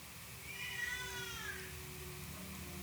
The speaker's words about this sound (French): Et eh oui, vous entendez mon bébé de deux mois pleurer. Désolé pour ça.